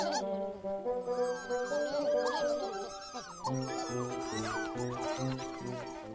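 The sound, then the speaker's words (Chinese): Cartoon characters Xiaodiandian and Xiaodoudou (the Pontipines) make a busy stream of high, squeaky 'mimi' chirping calls that swoop up and down in pitch, chattering continuously over steady background music. “这是小点点跟小豆豆的叫声，咪咪。”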